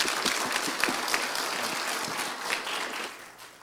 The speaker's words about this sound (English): Okay, church, let's give Him applause. Amen.